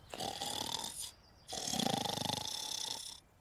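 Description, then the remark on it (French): Two loud, raspy snores from a female taking a nap, a short one and then a longer, rattling one after a brief pause, with no other sounds around them. “Elle se sent un petit peu fatiguée. Et qu'est-ce qui se passe Elle fait une sieste.”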